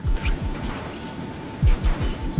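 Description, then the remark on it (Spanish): Hot machines in a munitions factory clatter and pound in a deafening, dense, continuous din, with heavy rhythmic thuds repeating over a steady mechanical hum and rattling noise, loud and overwhelming. “En la puerta el ruido nos rodea, un traqueteo ensordecedor. Todo vibra al ritmo de las máquinas calientes.”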